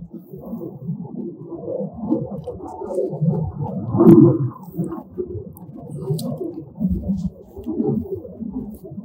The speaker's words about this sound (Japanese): 今、後ろ背景にすごい飛行機の音が聞こえてると思うんですけど、あの、米軍基地がね、まあ、近いところにあるんで、たまにこういう爆音がしますね。